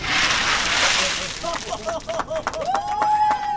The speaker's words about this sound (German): So klingt es, wenn sich Donald Trump zwei Sektkühler mit eiskaltem Wasser über den Kopf schütten lässt.